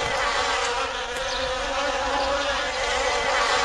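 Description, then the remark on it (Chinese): A steady, droning buzz of bees fills the whole stretch, a dense mid-pitched hum that holds at an even loudness with faint wavering tones, and no one speaks. “哎，大人，蜜蜂！”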